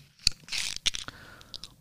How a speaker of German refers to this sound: Jede einzelne Ecke, und du hörst das auch hier, ne? Ich mache jetzt immer mehr Ecken und Kanten rein in diesen Post-it.